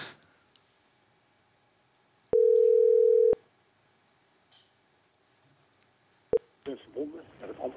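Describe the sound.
A telephone call rings through with one long, steady tone, then a stretch of near-silence, a short sharp beep, and a recorded voice beginning to speak as an answering machine picks up.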